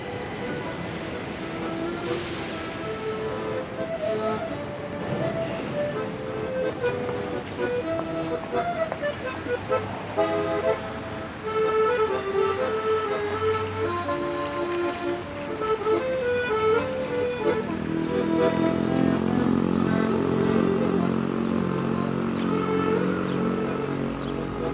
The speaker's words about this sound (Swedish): ljud från gatan har ni säkert hört och ibland utan att ens tänka på det. Men vi ska höja volymen lite, eller ta på oss hörlurarna